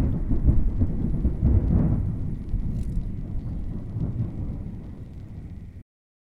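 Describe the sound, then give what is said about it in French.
Deep rolling thunder from an approaching thunderstorm rumbles continuously, loud and low, with a steady hiss of rain over it, swelling and fading for several seconds before cutting off abruptly. “Et je compte les secondes. Et l'orage se rapproche. Les éclairs s'intensifient.”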